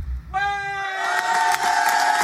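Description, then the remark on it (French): A man's loud, sustained shout rings out over a cheering crowd, the noisy roar swelling around him and continuing steadily to the end. “voilà, vous l'entendez sûrement, hein, cet homme qui hurle à travers les foules”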